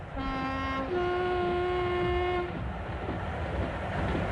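A train speeding up after coming out of a tunnel rumbles along the rails as its horn sounds a long, loud two-tone blast that drops in pitch, then cuts off, leaving the steady roar of the moving train.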